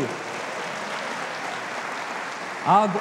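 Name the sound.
applause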